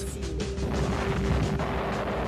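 A powerful explosion, heard around 4 pm, roars as a dense, sustained rumble with heavy low-end weight, filling the whole stretch at steady, loud intensity with crackling debris-like noise and no voices.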